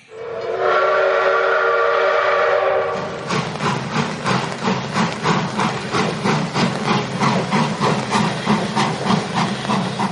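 A loud, sustained train whistle blows for about three seconds, then gives way to the steady rhythmic clatter of a train rolling past on the tracks, continuous.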